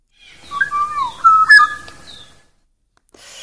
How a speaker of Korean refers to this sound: 여러분, 리얼 꾀꼬리 사운드, 실제 꾀꼬리 소리 한번 같이 들어봐요.